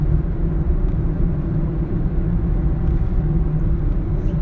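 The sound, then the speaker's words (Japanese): Steady low engine drone and road rumble inside a moving car driving home, loud and continuous throughout with no talking, the hum holding an even level from start to finish. “ああでももうほとんどのねお店も今車でこう帰りながら撮ってますけど空いてますね”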